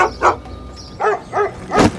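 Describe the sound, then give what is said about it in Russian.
A dog barks four times at a lion in short, uneven bursts, moderately loud, with brief pauses between the barks and no talking. “Давид услышал свою собаку и вскочил. Увидел льва, собака лает”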